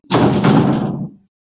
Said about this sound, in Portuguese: As minhas cadelas foram as duas contra, contra a porta fechada. Assim, tipo, vamos mandar isto abaixo.